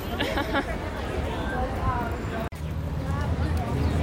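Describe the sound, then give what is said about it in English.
Dense crowd chatter fills a busy eatery, many overlapping voices forming a steady, loud hubbub with no single speaker standing out, briefly cut by a short gap midway. “unfortunately, there's even more crowd here, which is so weird. There's more crowd here. It's so much more noisy.”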